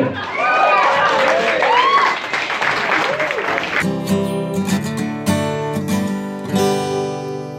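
A burst of loud crowd applause with whistles and cheering rings out for several seconds, then cuts into a steady musical tune that carries on to the end.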